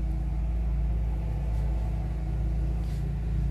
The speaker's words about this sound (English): Motherfuckers mowing outside. Rude.